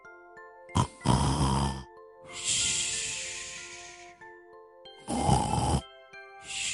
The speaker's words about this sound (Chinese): 嘘，他大声的打着呼噜。跳跳偷偷的笑了。每次他听到蹦蹦打呼噜，都觉得很滑稽。